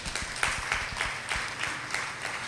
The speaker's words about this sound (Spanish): Denle un aplauso a Dios, esto es maravilloso, hermanos.